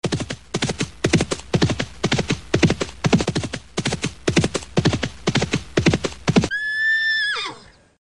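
Steady, rhythmic hoofbeats clip-clop for several seconds, then a horse lets out a loud, high whinny that wavers and falls away at the end.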